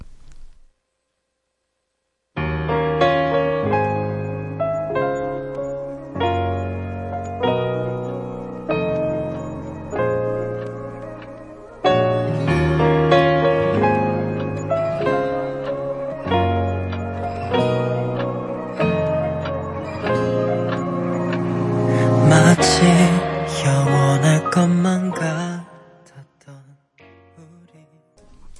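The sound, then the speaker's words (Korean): A Korean pop song, requested by a listener, plays on a radio show steadily at moderate volume, a melodic arrangement with a regular beat that begins after a brief silence and fades out near the end. “아, 노래 들을까요?”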